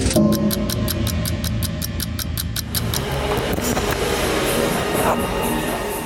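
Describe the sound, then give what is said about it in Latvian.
Steady street traffic noise heard through the open windows of a Latvian Red Cross social centre on a summer morning, rumbling throughout, with a rapid, regular ticking in the first half before it fades into the continuous hum of passing vehicles. “Centra darbinieks steidz uzkopt telpas, pa atvērtajiem logiem dzirdami ielas trokšņi, grīdas, vēl mitras.”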